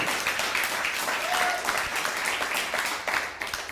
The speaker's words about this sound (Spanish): Un fuerte aplauso. Hasta allá nos ven.